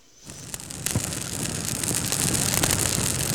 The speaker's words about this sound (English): Want to have the bonfire? I want to do it. Get a little toasty?